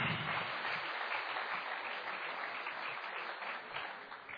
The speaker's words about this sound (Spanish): Se perdió de darle el aplauso a Cristo. Aleluya.